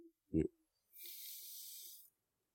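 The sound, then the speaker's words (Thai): A brief low vocal sound, then a long, steady airy inhale lasting about a second, fairly soft, ending in silence; an in-breath taken while straightening the body upright during breathing meditation. “ตั้งกายให้ตรงตอนลมหายใจเข้า ยาวๆยืดเนี่ยมันจะเด้งออก แล้วเราก็ผ่อนลมหายใจทำลมหายใจของตัวเองให้เป็น บางครั้งก็ยาวบางครั้งก็สั้น”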